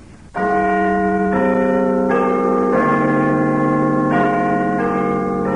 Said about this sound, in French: Une horloge. C'est une horloge.